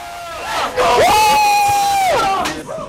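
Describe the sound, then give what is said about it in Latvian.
A group of young basketball players in Jaunjelgava, Latvia, cheering loudly together after a win while watching the game, with a sustained, rising shout held for about a second amid excited crowd noise, energetic. “Varam dzirdēt arī fonā šīs emocijas.”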